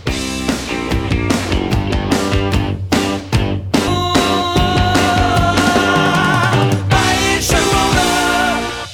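A loud, driving 1970s rock song with a repeating guitar riff over punchy drums and bass, playing steadily throughout with no one talking over it.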